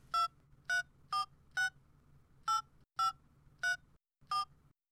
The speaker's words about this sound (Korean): 합격자 발표 날. 시험장의 악몽이 생각나 기대도 하지 않았지만 혹시나 하는 마음으로 전화기에 내 수험번호를 눌렀다.